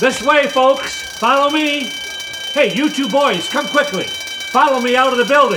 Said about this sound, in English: Hey, that's a fire alarm, I'll bet. Must be a fire somewhere in the building.